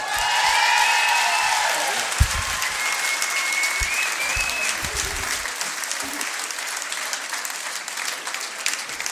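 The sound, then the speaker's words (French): Sustained, dense applause from a large audience welcoming a singer fills the whole stretch, with a few whistles cutting through near the start and scattered louder claps and cheers throughout. “Je vous demande d'accueillir comme il se doit ….”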